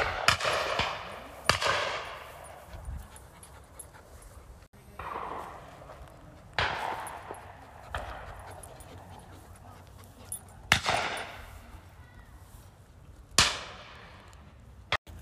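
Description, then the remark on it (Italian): Gunshots at the Holland & Holland clay shooting ground in Northwood, north-west of central London: several sharp, loud bangs fired at irregular intervals, each followed by a brief echoing decay, with a soft background hum between shots and no talking. “Mi trovo da Holland Holland, che è uno shooting ground a Northwood, che si trova a nord-ovest del centro di Londra”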